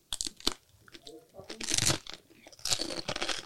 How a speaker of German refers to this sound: Ich beiß jetzt ab und dann darfst du mir die Entstehungsgeschichte eines ähm, Manufakturproduktes daran erzählen. Komm, lass ja. uns abbeißen.